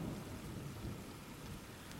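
Steady, dense rain falls continuously with a low rumbling undertone, a constant wash of patter filling the background with no voices present.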